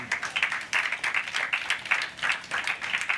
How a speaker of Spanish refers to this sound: Le damos un aplauso al Señor, amén.